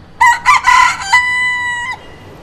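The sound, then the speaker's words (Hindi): A rooster crows once, loud, its harsh broken opening breaking into a long sustained note that ends abruptly after about two seconds, with no voices around it. “बहुत सारे लोगों को मालूम पड़ चुका है कि मुर्गा है Actually, uncle is fond of bringing all these things, pets and all.”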